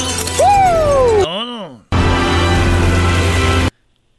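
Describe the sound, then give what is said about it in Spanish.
Glass shatters in a loud, sustained crashing burst lasting nearly two seconds, preceded by bright ringing, warbling tones that bend downward, then cuts off abruptly into silence. “Mira, el vidrio.”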